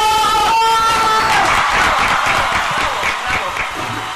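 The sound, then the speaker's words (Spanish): A crowd breaks into loud, sustained applause, dense clapping that holds steady for several seconds, with a brief tonal cheer or voice at the very start. “Quiero un fuerte aplauso para los chilenos.”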